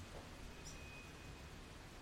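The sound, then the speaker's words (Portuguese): Soft, steady rain falls throughout, a faint, even hiss that never lets up, with a brief, faint high chirp from a small bird sheltering from the rain near the start. No one speaks. “Pô, tem um passarinho que está escondido da chuva, eu estou ouvindo ele, coitado.”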